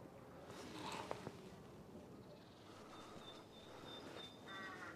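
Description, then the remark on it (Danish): Birds singing in the background outdoors on a spring day, with thin high whistles and short chirps scattered across the moment over a soft, steady wash of ambient noise. No one is talking. “Der er godt gang i fuglene her i baggrunden er altså også virkelig en dejlig forårsdag.”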